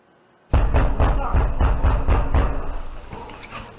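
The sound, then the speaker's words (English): Heavy fists pound loudly on the front door of a Project Veritas journalist's home, by people saying they have a warrant, in a rapid, steady run of about eight booming thuds, then the banging breaks off and the noise fades. “They pounded on his door.”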